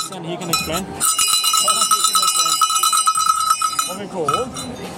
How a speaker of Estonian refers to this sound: Uh, so these are the bells, the cowbells. It's really traditional Norwegian. This is to make as much noise as over uh, yeah, as possible, so that we know that Norwegians are here